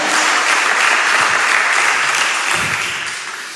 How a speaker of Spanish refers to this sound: Dale un aplauso fuerte. Fuerte, fuerte. Aleluya.